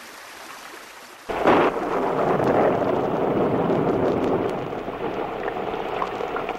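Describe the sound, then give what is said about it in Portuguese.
A thunderstorm breaks in after a second of quiet: a sudden loud crack of thunder that rolls on in a long, deep rumble, with steady heavy rain hissing throughout. “Nossa, que tempestade!”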